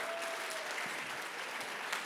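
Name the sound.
audience applauding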